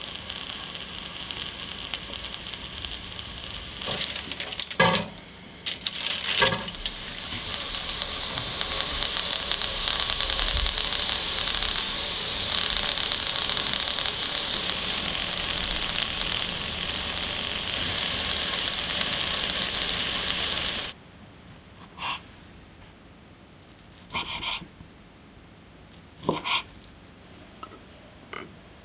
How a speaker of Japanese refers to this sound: 今朝は焼きたらこのお茶漬けのいい音